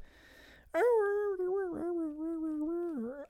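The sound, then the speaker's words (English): A person imitates a mournful dog whine: one long, sustained, wavering cry that holds steady, then rises sharply at the end, loud with no other sounds. “the sad, just that sad break your heart dog crying.”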